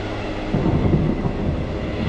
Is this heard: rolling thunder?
yes